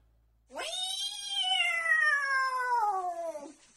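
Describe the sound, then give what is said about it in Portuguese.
A single long, drawn-out cat meow, loud, holding steady for about three seconds before its pitch slowly sinks and it fades out. Nothing else is heard. “Ó, quem tem alergia de gato, não assiste esse vídeo, não, que a gata chegou!”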